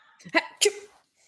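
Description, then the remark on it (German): A person fakes a sneeze with their voice: a short breathy build-up, then a sharp, explosive burst, fairly loud, followed by silence. “Ähm, als du dich ein bisschen runterbeugst und einen halben Schritt machst, wirbelst du ein bisschen Staub auf, der dir in der Nase kitzelt, sodass du erstmal niesen musst.”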